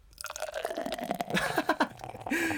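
Yebisu beer, poured by the drinker's own hand, glugs and splashes into a glass, a steady bubbling pour with gurgling pulses and a rising tone as the glass fills, no talking.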